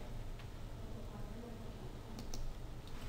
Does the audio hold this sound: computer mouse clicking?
yes